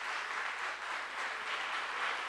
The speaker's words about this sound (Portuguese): Vamos aplaudir a Jesus.